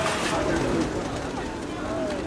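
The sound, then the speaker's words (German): A dense, steady wash of cooing from about 1800 pigeons at once, brought by breeders to the collection point the day before a race flight; soft overlapping murmurs blended with indistinct background chatter and noise. “Bringen die Tauben? Kommen immer mehr, immer mehr. 1800 Tauben.”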